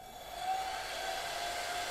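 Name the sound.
hair dryer blowing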